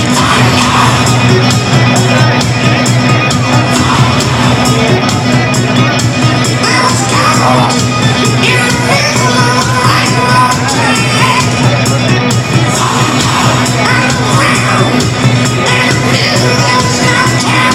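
A huge stadium crowd at Estadio Castalia roars, shouts and whoops continuously over loud, booming music played through the venue in darkness, with the crowd's phone lights on, the noise dense and unbroken throughout.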